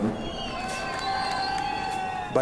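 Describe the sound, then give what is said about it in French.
A crowd of residents cheers and claps continuously as arriving refugees pass, a dense wash of voices and applause with a few high shouts standing out above the noise. “Acclamations et applaudissements de ses habitants au passage des réfugiés.”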